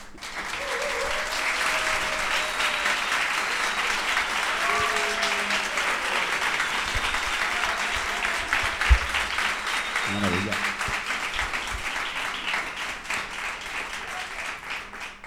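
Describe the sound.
A large theatre audience applauds steadily for about fifteen seconds to welcome the guests, actor Pachi Freitez and Tolo Ferrá, a dense, sustained wash of clapping with a few faint cheers and voices mixed in.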